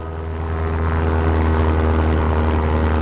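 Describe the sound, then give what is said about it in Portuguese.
A propeller airplane engine drones steadily and loudly, with a deep, even hum and a slightly rising swell at the start, no voices present. “Era uma vez um aviador que viajava alegremente pelo mundo com seu avião.”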